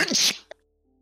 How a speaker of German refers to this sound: Gesundheit.